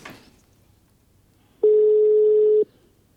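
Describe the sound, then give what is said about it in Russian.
A single steady phone ringback tone, one clear electronic beep lasting about a second, loud, after a brief quiet moment, with no one speaking, as a phone call is placed. “В общем, Давай звони.”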